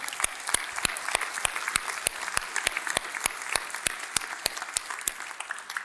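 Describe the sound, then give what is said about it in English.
A church audience applauds and cheers for the church's stewardship having helped over 40 thousand people this year, with a loud, steady beat of sharp claps standing out above a continuous wash of crowd clapping and noise, keeping an even rhythm throughout. “Can we now, I want you to cheer. Let's cheer for that.”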